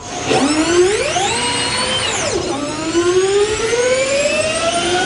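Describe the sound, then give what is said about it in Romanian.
A synthetic, sci-fi-like electric sound from a Formula E race car on a circuit rises in pitch as it accelerates, dips, then climbs steadily again, a layered whining tone with many harmonics, loud and continuous with no talking. “Pe de altă parte, sunetul ăsta într-o mașină de oraș”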